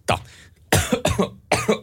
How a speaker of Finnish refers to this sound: Oho. Mikä sulle, mikä sulle nyt tuli? Äsken mä putosin, putosin yskän kohtauksia ja nyt sinä sitten. No, tää, tää Menikö on... riisikakkua väärään kurkkuun? Meni.